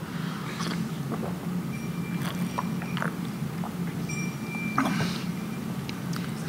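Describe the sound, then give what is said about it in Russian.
Someone drinks about half the water from a glass, with a series of soft, wet swallowing clicks and small gulps over a steady low hum, no one talking. “Просто половина осталась в стакане, а половина во мне.”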